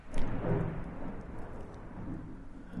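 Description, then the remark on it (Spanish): Steady rain, which began falling during a recording, hisses continuously under a deep, rolling low rumble that may be thunder. The sound stays fairly even throughout, with no voices. “Mientras grabamos, se largó a llover y la lluvia nos acompaña”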